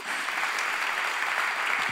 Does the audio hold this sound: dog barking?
no